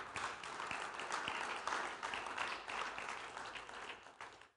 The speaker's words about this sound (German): Na, dann gebt dem Herrn einmal einen Applaus, dass wir dabei sein dürfen.